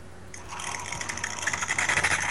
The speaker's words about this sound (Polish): Słychać leci para. I teraz ja ciśnienie tej pary mogę regulować. Oho, lapie mi tutaj. Tak. No właśnie, i teraz leci para, tak? Ja mogę sobie to, to ciśnienie tej pary yy, regulować tym pokrętłem.